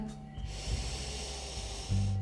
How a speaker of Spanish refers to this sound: Te voy a pedir que coloques una mano en tu pecho, otra mano en tu abdomen y quiero que ahora comiences a conectar con tu respiración. Comienza a inhalar